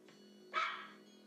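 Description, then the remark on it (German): A single sharp dog bark rings out over a quiet background hum, short, with no voices around it. “Hunde werden klassifiziert nach der Art ihres Bellens.”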